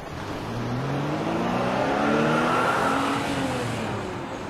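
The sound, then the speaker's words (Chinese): Cars rush past on a road, a broad roar of engines and tires swelling to a peak midway and then fading, with humming engine tones sliding in pitch. No one speaks. “汽车呼啸而过，喇叭滴滴响着，皮皮吓坏了。”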